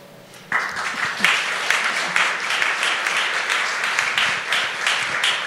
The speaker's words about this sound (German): Kriegt immer nur die Politik den Applaus. Irgendwas machen wir falsch.